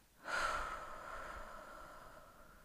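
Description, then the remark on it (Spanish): A single slow, deep breath taken as a breathing exercise to calm anxiety, a soft airy rush that swells quickly and then gradually fades over a couple of seconds, with no talking. “Vamos a inhalar, aguantamos y votamos.”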